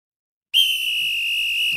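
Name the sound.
whistle being blown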